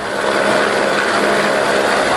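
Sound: helicopter hovering overhead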